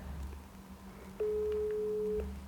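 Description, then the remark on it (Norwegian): A single steady ringback tone plays through a phone speaker as a call is placed from Høyanger, starting abruptly and lasting about a second, over a low background hum with no one talking. “Nå ringer vi altså til Rune.”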